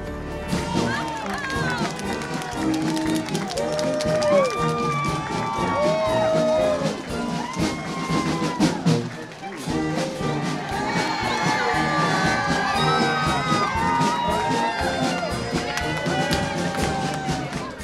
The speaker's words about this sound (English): huge crowd of family and friends is here to scream, Welcome home.